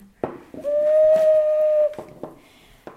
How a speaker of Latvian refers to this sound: Papūst arī var. Papūst arī var. Un katram svilpukam ir cita žoka skaņa.